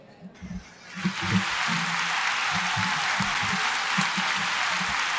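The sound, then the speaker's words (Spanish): A crowd of fans bursts into steady applause for a league champion, rising within the first second and staying loud and dense throughout, with low voices murmuring and calling underneath the clapping. “Muchas gracias, muchas gracias a esa fanaticada que está siempre ahí pendiente, esos aplausos tan genuinos.”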